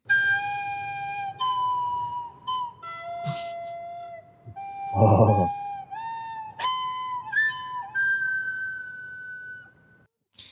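A child plays the national anthem on a recorder: shrill, held notes stepping up and down with wobbly pitch and a few squeaky breaks, and a brief laugh partway through.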